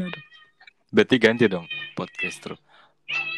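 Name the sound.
cat meowing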